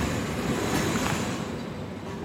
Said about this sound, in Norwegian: Nei, nå er vi ved innkjøringen til eh, Oslo S. Ligger liksom rett foran oss. Togene stopper her.